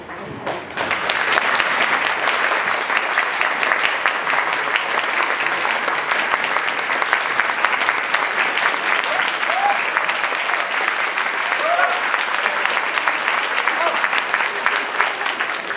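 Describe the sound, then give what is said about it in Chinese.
Sustained applause from an audience in Beijing in the afternoon after lunch, a dense steady patter of many hands clapping for about fifteen seconds at an even, fairly loud level, with no talking over it. “吃饱的话，应该掌声会比较响一点。”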